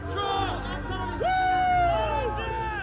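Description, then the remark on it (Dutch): A dense, loud crowd of rioters storming the US Congress roars and shouts continuously. Individual voices yell out above the din, and one long rising and falling cry stands out, like an agitated mob pressing forward. “Een republikeinse wettenmaker uit West Virginia voegde zich bij het rappalje dat het congres bestormde.”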